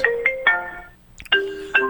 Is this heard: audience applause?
no